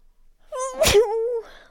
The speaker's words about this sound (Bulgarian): Кихнах. Не знам дали ще го оставя, но може би няма да го оставя в епизода.